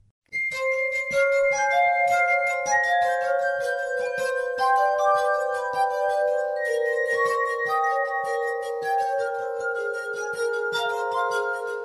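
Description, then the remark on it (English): Glass harp music played by a Polish duo, with sustained, shimmering tones layered into slow, overlapping chords and fine high sparkle, steady and without any voices. “…: Ethereal Glass Harp Music from Poland”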